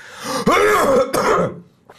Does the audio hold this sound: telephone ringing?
no